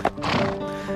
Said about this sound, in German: Gauchos und Pferde, die durch die Pampa galoppieren. Hört sich so an, oder?